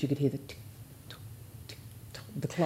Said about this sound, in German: Man hörte das Ticken der Uhr.